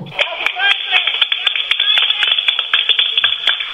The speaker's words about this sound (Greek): Ήρθε Θεσσαλονίκη ο πρόεδρο. Ήταν κάτι κυράτσε απ' έξω και φωνάζαν Γεια σου, κούκλο είναι, κούκλο. Παλαμάκια ε, ήταν. Εμένα μου, εμένα μου ακούγονταν σαν δέρμα που πλατσουρίζει δέρμα.